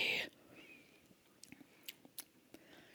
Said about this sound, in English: All right, clink very carefully oh because somebody likes to fill their glass up to the top mm-hmm. and sip away.